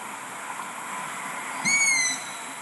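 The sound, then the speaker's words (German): A single high, thin squeaking call of a long-eared owl chick begging, lasting about half a second over a faint steady background hiss, fairly clear, played back from an online video recording. “auch den Ruf des Waldohreulenbabys auf YouTube ähm, eingegeben und habe das dann gefunden”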